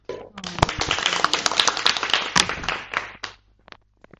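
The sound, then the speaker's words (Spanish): A short round of applause from a small group: dense, crackly clapping builds quickly, holds steady for about three seconds, then thins out into a few scattered final claps. “pero pienso que el ambiente que estás diciendo y la paciencia que deben de tener las profesoras dándoles de comer, vamos, también pienso que se han ganado un aplauso.”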